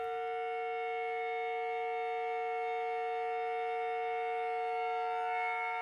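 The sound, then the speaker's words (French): A kettle in a caravan, being recorded, whistles in a steady, piercing tone that holds unbroken for several seconds, loud, with rich overtones and no voices. “Alors que Jean commence à enregistrer cette bouilloire, il se rend compte que ce n'est pas du tout le son qu'il espérait.”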